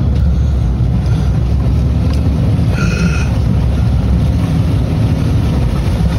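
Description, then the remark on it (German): A car drives through a river ford, its engine rumbling loudly and steadily amid rushing, churning water, with a brief higher whine partway through. No one speaks. “Das Auto geht nicht kaputt, wir fahren jetzt hier durch.”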